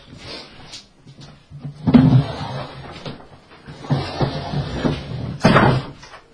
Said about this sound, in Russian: Э, я, пожалуй, знаете, что сделаю? Я открою вот эту дверь хотя бы, да?